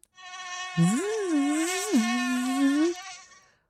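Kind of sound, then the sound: insect, mosquito buzzing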